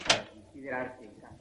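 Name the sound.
front door being opened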